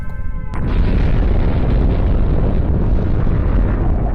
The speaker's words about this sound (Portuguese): Oito segundos depois que a bomba atômica foi detonada, o físico nuclear Robert Oppenheimer, ao ver a explosão, citou Bhagavad Gita: Agora eu me torno a morte, a destruidora de mundos.